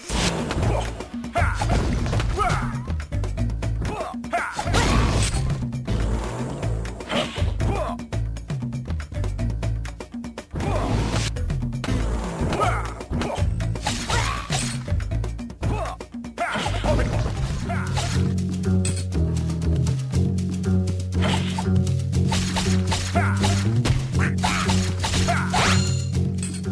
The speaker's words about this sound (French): Qui nous demande si on pouvait passer, un de ses morceaux de musique.